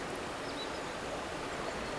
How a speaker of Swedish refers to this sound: Vi befinner oss i Verla, en liten by i Kymmenedalen, ungefär 20 kilometer norr om Kouvola. Det här är en naturskön plats. Här finns höga gamla träd och vattnet som strömmar förbi är en del av en gammal flottningsled.